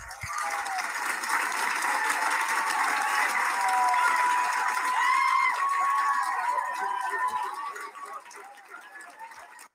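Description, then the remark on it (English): A large crowd cheers and claps loudly for nearly ten seconds after the St. Louis City Council votes to end its mask mandate, with whoops and raised voices rising above steady applause before it begins to fade at the end. “It's do you guys hear those cheers? I love it.”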